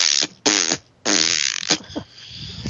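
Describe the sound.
Wet, buzzy raspberry sputters blown with the lips by a girl mimicking an explosion: three loud bursts in quick succession, then fainter trailing splutters. No talking.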